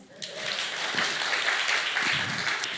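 An audience breaks into applause, a dense, steady wash of many hands clapping that swells quickly and holds at a fairly loud level for a few seconds.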